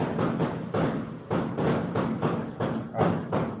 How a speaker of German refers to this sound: Feuerwerk. Feuerwerk in der Tristessa.